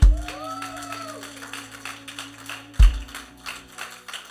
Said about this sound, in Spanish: Con el hermano que está a tu lado. Dele el aplauso, Señor.